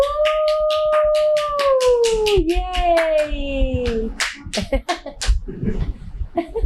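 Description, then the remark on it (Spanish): Rapid, steady hand clapping from an audience applauding as the speaker stands, while a voice lets out a long wailing howl imitating a siren over the first few seconds; scattered claps and voices follow. “Cuando yo me paro, ustedes aplauden.”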